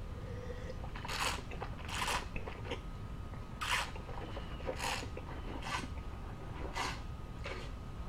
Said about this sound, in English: Now you can see what I did. I sloshed the wine in my mouth.